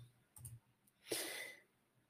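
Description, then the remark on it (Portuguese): A few soft, quick computer mouse clicks, made to check the name of an audio file, followed by a brief breathy exhale. No one speaks. “Só dar um clique aqui eu já vejo, peraí.”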